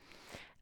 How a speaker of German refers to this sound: Was du jetzt hörst, ist, ich laufe mal kurz rum, ich habe mich gerade einen Kaffee umgekippt.